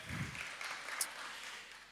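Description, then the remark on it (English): An audience claps together for a speaker who just turned 39, a steady, dense patter of many hands that holds evenly for a couple of seconds at a fairly soft level, with no voices over it. “We should clap when people do cool things.”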